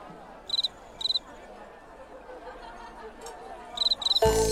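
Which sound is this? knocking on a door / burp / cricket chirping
cricket chirping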